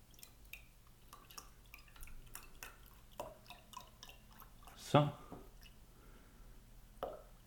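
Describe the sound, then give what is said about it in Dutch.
About 235 ml of milk for a batter being poured into a glass, filled to about two-thirds (roughly 230 ml) to measure it: a quiet run of small drips and trickles with one louder splashing gurgle partway through and a brief splash near the end, no talking. “Ehm, ik ga het eventjes afmeten.”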